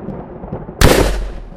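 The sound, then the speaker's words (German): A sudden loud electric crackling blast hits after a quiet moment, bursting across the whole range and rumbling on for under a second before fading, like a thunderbolt attack effect in a game. “Donnerschock!”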